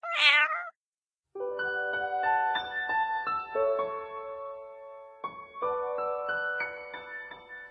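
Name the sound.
cat meowing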